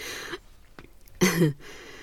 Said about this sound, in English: That's my daughter sneezing.